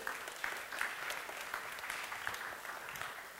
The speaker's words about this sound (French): On peut les applaudir, vous pouvez vous lever.